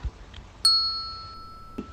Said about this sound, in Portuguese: Ai que delícia ouvir esse sino de manhã. E quem mora ali por perto já deu testemunho que é muito bom ouvir o sino.